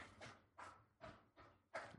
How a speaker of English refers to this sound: your dog drinks really loudly. She does.